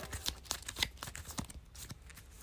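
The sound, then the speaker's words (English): Quiet rapid papery riffling and flicking as a card is shuffled back into the encounter deck of a card game, a dense run of soft snaps that thins out toward the end. No voices. “So then I gotta take the top card. And then from the encounter deck and shuffle in with the rest.”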